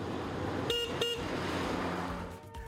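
A busy roadside in the northeast of the Sarthe, France, with cars rumbling past as more than 70 circuit and road cars parade. Two short horn toots sound in quick succession, followed by continued engine noise from passing vehicles.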